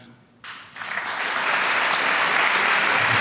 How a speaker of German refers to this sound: Applaus